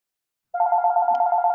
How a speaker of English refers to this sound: Oh, sorry. Phone call